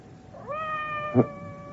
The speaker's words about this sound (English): Did you hear anything? Outside the door. It sounded like Madame's cat, Francois.